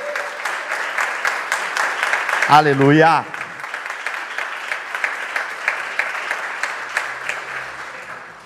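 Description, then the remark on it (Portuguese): A group of people claps steadily for several seconds as a round of applause for the Lord after a prayer, the dense applause continuing while one voice briefly shouts an exclamation over it near the start. “Dá uma salva de palmas para o Senhor para a gente começar.”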